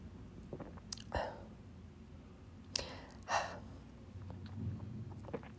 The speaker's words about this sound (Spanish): Y con el último sorbito de vino, mm,